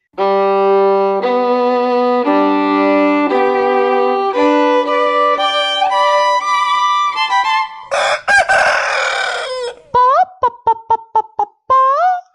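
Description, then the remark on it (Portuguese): A loud rooster crows in long, drawn-out harmonic calls, then a raspy burst and a quick series of short, sharp clucks, with no talking. “Um galo estava ciscando, procurando alimento para ele e para as galinhas.”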